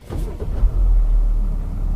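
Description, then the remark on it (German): The inline six-cylinder engine of a large car, just started, idles with a steady, deep, smooth rumble that holds evenly for a couple of seconds after a brief rise at the start. No one speaks. “rein Sechszylinder, muss man sagen. Das ist schon äh, eine gute Motorkonstruktion”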